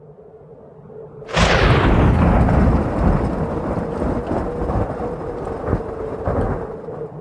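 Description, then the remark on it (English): A sudden crash of thunder from lightning on the far horizon during a raging blizzard breaks the near-quiet, then rolls on as a long, heavy rumble that slowly fades but keeps grumbling to the end, with no voices. “Bolts of lightning tore at the far horizon as the blizzard raged on.”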